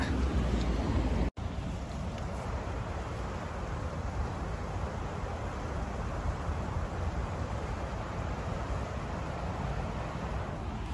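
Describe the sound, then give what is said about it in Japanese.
The Toyohira River's water flows in a steady, continuous rush that fills the whole recording, with a brief cut-out near the start, on a fairly warm day of nearly 10°C; no one speaks. “豊平川の川の流れの音聞こえるでしょうか”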